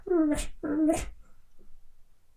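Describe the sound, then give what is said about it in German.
A person makes two short, high-pitched whining cries in quick succession, imitating a chihuahua's whimper, fairly loud, followed by quiet background noise. “Dann haben wir den Chihuahua.”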